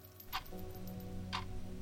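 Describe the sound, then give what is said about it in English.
Two crisp clock ticks land about a second apart, clear, over a soft, steady low musical drone. No one speaks. “I look at the clock 30 minutes.”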